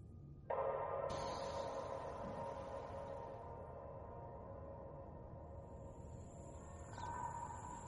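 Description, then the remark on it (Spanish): A dense tropical rainforest ambience swells in, with steady high-pitched cricket and insect drones and chirring layered over a constant low wash of background noise, sustained throughout with no voices. “Empiezas a distinguir ahora que empiezas a coger conciencia del lugar, el ruido de lo que parece una, selva, un bosque tropical.”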